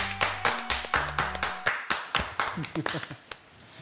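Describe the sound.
A short burst of hand clapping, a dozen or so sharp, fairly regular claps from a small group applauding a performer for his acting, with some low murmuring voices underneath that fade as the clapping thins out.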